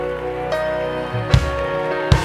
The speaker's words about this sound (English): All the free people clap your hands and sound free.